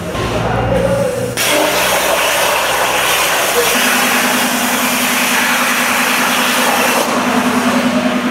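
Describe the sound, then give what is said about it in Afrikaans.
A computer-controlled cutting machine cuts a circle, cutting out a part from a program drawn on the computer, with water underneath to take away the smoke; it runs with a steady, loud mechanical drone and broad hiss, its pitch shifting partway through as a sustained low hum sets in. “Jy teken nou die program op die rekenaar en dan sit jy die stokkie in hom en dan sny hy die part vir jou uit”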